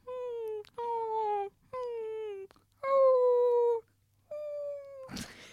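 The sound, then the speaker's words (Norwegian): A voice imitates a person whimpering in their sleep in the middle of the night: five drawn-out, nasal whines, each sliding slightly downward in pitch, with short pauses between them, ending in a breathy burst of air. Fairly loud. “Jeg våkner midt på natta av en sånn klynkelyd.”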